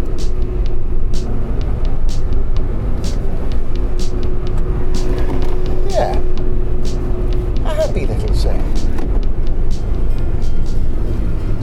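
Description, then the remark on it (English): A small 1.33-litre four-cylinder Toyota VVT-i engine in a Toyota Verso S hums with a steady low drone, then revs up twice in quick succession, its pitch climbing briefly before settling back into the continuous rumble. “But this is a 1.33, and it's got a lovely little VVT-i Toyota revvy little four in it, which makes a happy little sound.”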